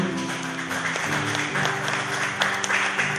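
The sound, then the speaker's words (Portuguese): A large group claps together in steady, dense applause for the name of the Lord after a prayer, continuing for a few seconds, with a low sustained musical tone running underneath. “Vamos aplaudir o nome do Senhor.”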